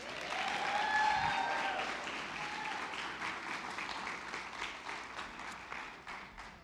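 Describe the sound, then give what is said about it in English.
A crowd breaks into sustained applause, dense clapping with a few whoops and cheers rising above it early on, loudest at the start and gradually tapering off over several seconds. “So, without further ado, would you help me to make some noise”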